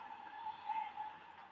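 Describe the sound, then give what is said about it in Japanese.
Steady interior running noise of the Hayabusa No. 7 shinkansen bullet train bound for Shin-Aomori, running between Tokyo and Omiya: a continuous, even whoosh with a faint high-pitched whine, moderately quiet throughout, with no voices. “【実録】はやぶさ７号新青森行き（臨時ダイヤ）より東京～大宮”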